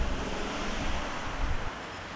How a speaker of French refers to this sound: Et vous contribuez au mien en écoutant mes balados et le vent souffle.